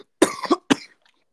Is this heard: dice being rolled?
no